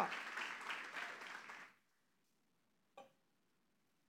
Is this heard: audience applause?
yes